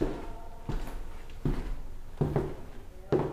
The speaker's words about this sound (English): Mark opens the heavy hotel doors, and the second the doors close, the sounds of the world dissipate.